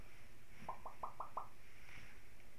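Five quick, light metallic taps in a steady rhythm as pots and skillets clink together during cooking, soft over a low background hum, with no talking.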